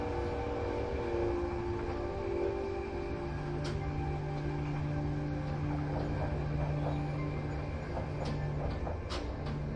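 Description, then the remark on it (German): A train rolls steadily along the rails, a continuous rumble with a droning hum and occasional sharp clicks and clacks, with no voices. “Der Zug fährt über alte Steinbrücken, die über glitzernde Bäche führen deren Wasseroberfläche im Mondlicht tanzt.”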